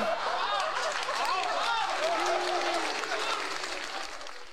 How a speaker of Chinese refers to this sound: 听到结尾了吧？就是那种嗯，相声小剧场里头的鼓掌啊，还有那种吁的声音啊。